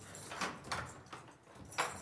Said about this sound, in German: gut gelaunt die Tür zum Amtsschloss öffnet